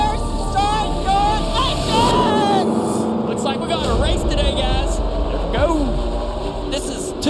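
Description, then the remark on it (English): A loud, steady roar of several race car engines firing up together at a dried racetrack in New Hampshire, with revving pitches sweeping up and down over a dense rumble; indistinct voices sit faintly beneath the noise. “Let's crank the engines in New Hampshire.”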